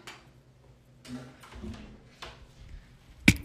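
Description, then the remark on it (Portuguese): Quiet shuffling and creaking handling noises lead up to a single sharp, loud thud near the end as a door is pushed shut, with no talking. “Deixa eu fechar a porta.”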